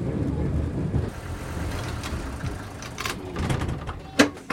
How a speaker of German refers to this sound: Die haben hier eine Kurbel und da kann man das Fenster ganz langsam aufleiern.